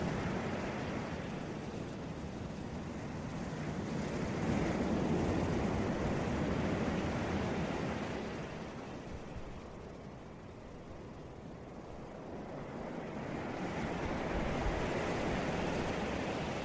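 Steady roar of surf with waves breaking on shore, swelling louder around the middle, easing off, then building again toward the end. Broad, continuous wash of water with no voices.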